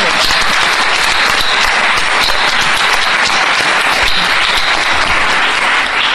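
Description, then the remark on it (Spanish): Sustained, loud applause from a large audience welcoming Dr. María Teresa Uriarte, UNAM's coordinator of cultural diffusion, at an event with Radio UNAM; a dense wash of many hands clapping continuously without pause for the whole stretch. “Así que vamos a darle la bienvenida a la doctora María Teresa Uriarte, coordinadora de difusión cultural, con un fuerte aplauso, por favor.”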